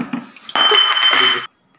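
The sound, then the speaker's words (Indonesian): A drinking glass shatters with a sudden bright crash, sustained high ringing and rattling shards for about a second, then cuts to silence; a few soft knocks come just before. “oke balik lagi guys tadi ada trouble kelas hmm. pecah hmm.”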